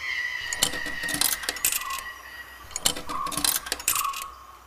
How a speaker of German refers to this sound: Dann gehe ich doch mal dahin und steck meine zwei Tokens ein.